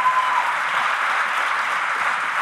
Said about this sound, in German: Applaus bitte für die Techniker hinten für die Volksbühne.